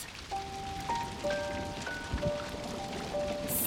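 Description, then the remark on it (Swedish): Hail of ice pours down in a steady, dense patter, with a few clear ringing tones sounding over the clatter. No one speaks. “De var nu så arga så det blixtrade och ur de båda vräkte det ner hagel av is.”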